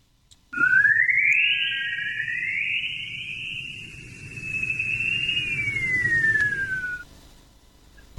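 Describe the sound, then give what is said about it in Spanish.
An eerie sonified radio recording of Earth's radio emissions, recorded from space by the Voyager spacecraft: a single whistling tone glides upward, holds, then slowly slides back down over several seconds above a low, steady rumbling hiss. “eso no es un chiflido, sino realmente es la forma en la que la Tierra se escucha desde el espacio.”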